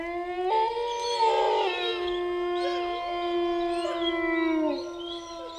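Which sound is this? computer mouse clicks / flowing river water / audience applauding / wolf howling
wolf howling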